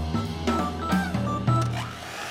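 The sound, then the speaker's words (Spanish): An electric kitchen mixer whirs for a couple of seconds, its motor hum steady and loud with a few brief shifts in pitch. No one talks. “Ustedes seguramente escuchan una batidora, pero para mí es el recuerdo de un molde con masa cruda de torta en la mesa de la cocina de mi casa.”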